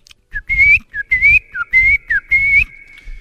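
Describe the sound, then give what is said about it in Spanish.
A person whistles an imitation of a courting bird's song: about five short phrases of steady, high, bright tones with quick upward slides and brief dips between them, each backed by a breathy low rumble. “Hay unos que hacen unos nidos bien bonitos y y cantan y es y ahí vemos al pajarraco cantando y haciendo desmanes para llamar la atención de la hembra que más tarde se van a parear.”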